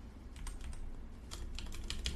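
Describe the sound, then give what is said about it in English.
Rapid, irregular clicks of typing on a computer keyboard as the name Donovan Mitchell is typed, moderately loud, with bursts of keystrokes over a low steady background hum and no voices. “I'm over here misspelling the shit out of his name. Keyboard tweaking.”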